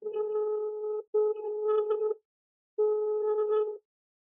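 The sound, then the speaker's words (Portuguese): A phone ringing tone repeats in steady, mid-pitched electronic bursts about a second long, with a brief break after the first and a longer pause before the third, and the call goes unanswered. “Eu tentei ligar para uma pantufer, a pantufer não atendeu o telefone, é uma pena”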